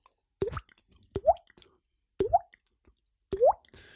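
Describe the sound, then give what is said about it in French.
Four hollow, rising water-drop plops, made by flicking a cheek, come at a slow, uneven pace. Each is crisp and fairly loud, with quiet gaps between and no talking. “J'ai appris un autre truc à la place le truc de la, de la goutte, faire la goutte avec la joue.”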